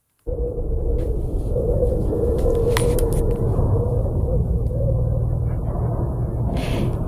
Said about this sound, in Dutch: Dat is het geluid op de planeten. Ja, eh, oh. laten we even eh, gaan luisteren naar een fragment. Eh, we hebben namelijk een fragment van het geluid op Mars.